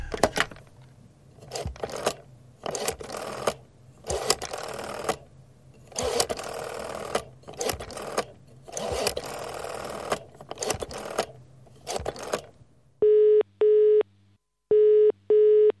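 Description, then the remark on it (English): A UK-style telephone ringing tone sounds two double-rings, each a pair of short steady tones, loud and clear, right after a long stretch of loud, rhythmic mechanical whirring. “Why does it sound like I'm using a phone in the UK?”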